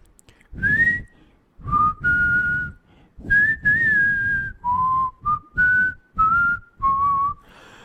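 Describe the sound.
Someone whistles a slow melody close by, a series of clear sustained notes rising and falling in short phrases with brief pauses between, loud and alone with no talking.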